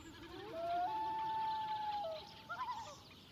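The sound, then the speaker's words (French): A common loon gives a long, eerie wailing call on Lake Mývatn, a volcanic lake in Iceland, communicating with the female: a single sustained tone that rises and holds before breaking into a few short wavering notes, clear and alone over quiet water. “ce qui vient de briser le silence du lac, c'est un plongeon imbrun.”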